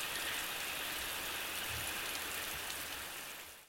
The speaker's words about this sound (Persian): خب حالا که یه کمی با گوش دادن به صدای بارون حس و حالمون بهتر شد